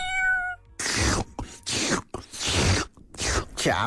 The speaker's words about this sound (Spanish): El gato político. ¡Miau!